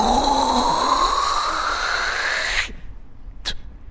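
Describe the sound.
A voice imitates throat hawking: a loud, raspy, gurgling rasp that rises steadily for over two seconds, cuts off abruptly, then a brief sharp burst like a spit follows.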